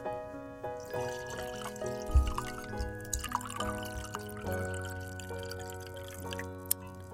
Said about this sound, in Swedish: Och så häller jag upp lite mer vin, bara lite mer Piemonte.